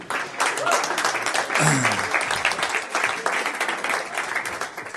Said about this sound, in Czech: Jo, jsou tam nějaký zvednutý ruce, že? Pojďme jim zatleskat, moc díky.